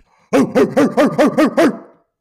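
A dog barks seven times in quick, evenly spaced succession, loud, with no talking, the last bark trailing off into a short echoey fade.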